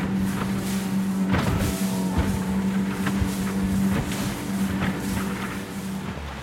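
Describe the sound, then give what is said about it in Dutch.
A speedboat's engine drones steadily with the throttle wide open while the hull slaps and thumps repeatedly against choppy water, with wind rushing over everything, as the boat bounces from Muiden harbour toward an island. “We stuiteren over het water richting het eiland.”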